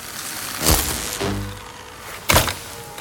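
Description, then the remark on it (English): A small remote control droid crashes during the filming of Star Wars: a hard clattering thunk, a short low mechanical whirr, then a second sharp bang as it hits again. No voices. “The remote control droids kept falling over, shorting out, crashing into each other.”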